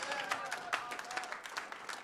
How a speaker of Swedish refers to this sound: Yes, vi ger Jesus en applåd.